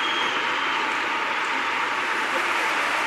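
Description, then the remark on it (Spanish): Dense, sustained applause from a large standing audience for the pregonero of Seville's Holy Week proclamation after he sang a prelude, lasting about three minutes; a steady hiss of many hands clapping at once that holds at an even level throughout without pausing, with no voices standing out. “Ahí está de nuevo Larguísimo el aplauso, yo creo que llevamos ya tres minutos de aplauso al pregonero con ese chaqué elegantísimo, después de haber cantado este preludio de la Semana Santa de Sevilla.”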